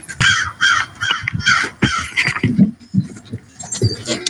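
A crow squawks in a rapid series of harsh, raspy caws, loud, repeating over and over with brief gaps and no voices around it.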